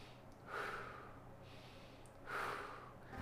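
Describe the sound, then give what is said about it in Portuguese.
Slow, steady, calm diaphragmatic breathing being demonstrated: two long airy breaths, each a soft rush of air rising and fading, with no talking; the abdomen pushes forward on each inhale and draws in on each exhale. “E eu começo fazendo essa respiração calma e vou acelerando ela, acelerando, acelerando, tipo assim.”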